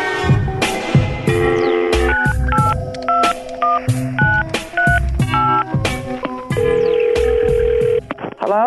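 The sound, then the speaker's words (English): A quick run of touch-tone dialing beeps, loud, over thumping percussive hits, followed by a long steady ringing tone near the end, as a phone tap call is placed on Big Boy's Neighborhood. No one speaks. “Yes, man had to call someone up and see if uh, they would accommodate DJ Cos.”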